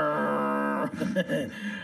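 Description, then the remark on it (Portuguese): Bugby, a pet dog and mascot, grumbles: a long, steady, droning whine that gives way to a series of broken, throaty grumbles and snuffles, fairly loud and with no talking. “o Bugby, o nosso mascote, tá aqui resmungando.”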